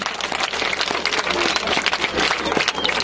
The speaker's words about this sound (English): Let us clap once. tiye tiombeni m'manja